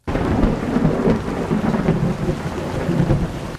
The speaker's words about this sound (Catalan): El que cal és el so de pluja d'aquest Infopodcast, una coproducció de la xarxa i Ràdio Sant Cugat.